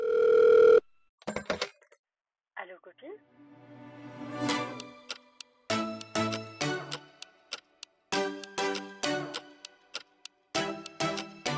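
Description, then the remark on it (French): A short intro jingle opens with a steady telephone-like beep, then breaks into punchy, rhythmic musical stabs and chords, bright, played alone without talk. “Enfin bref, on n'a pas oublié un truc là. Elle jingle.”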